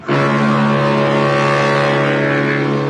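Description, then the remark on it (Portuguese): Almirante Nelson's ship horn on the Transatlântico do Sul blasts one long, steady, deep note that holds loud and unbroken for about three seconds, with a rich buzzing tone and no voices. “Almirante Nelson e a sua buzina no, no Transatlântico do Sul.”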